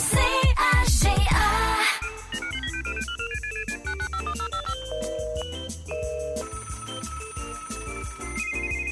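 Telephone keypad dialing tones beep in a quick, melodic run of pitched notes over a steady rhythmic beat, loud, after a brief burst of noise at the start, as a number is dialed for a member's call on the radio show Double Expresso.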